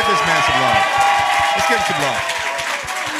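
A live audience applauding Stephen A. steadily, a dense wash of many hands clapping with shouts and cheers mixed in, sustained at full volume for the whole few seconds.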